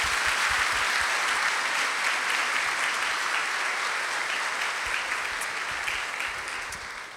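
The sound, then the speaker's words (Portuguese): Sustained applause from a church audience during a baptism service, a dense steady wash of many hands clapping at even loudness for several seconds, easing slightly toward the end, with no voices standing out. “Uma salva de palmas.”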